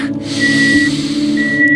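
A car parking sensor sounds a steady high-pitched tone in two stretches, over a constant low hum and breathy noise, with no talking.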